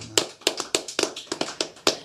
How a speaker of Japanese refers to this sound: 拍手を持って神様を賛美しましょう。